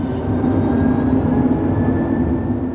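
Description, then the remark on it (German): A steady hum inside a hydrogen fuel cell bus in Palma, Mallorca: a low, continuous drone with a faint high electric whine on top, unchanging for the whole stretch, much like a cabin at cruising altitude. No one speaks. “Ich nehme euch vielleicht erstmal mit in den Bus, mit dem ich gefahren bin, der mit Wasserstoff betrieben wird.”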